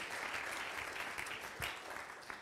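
Steady audience applause fills the whole stretch, a dense crackle of many hands clapping at a moderate distance, fairly loud and continuous with no talking over it.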